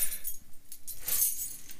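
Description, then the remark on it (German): Keys jangle and clink in a quick, bright flurry while a large package is being opened, fairly soft, with a louder burst of metallic rattling midway and no voices. “Wir haben beide Schlüssel. So viel steht fest.”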